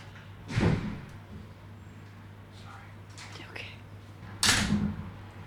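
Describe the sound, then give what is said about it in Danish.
Two separate muffled knocks or thumps at a door, a few seconds apart, with a low steady hum and faint rustling or whispery sounds between them. “Der bliver lige banket på.”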